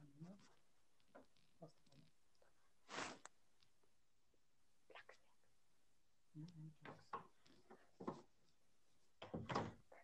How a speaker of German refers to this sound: Der klopft an der Tür. Warte mal kurz, ich nehme es.